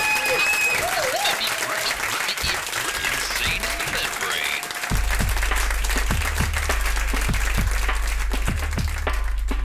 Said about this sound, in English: Thank you for coming. Uh, Richard Gadd, round of applause for Richard Gadd.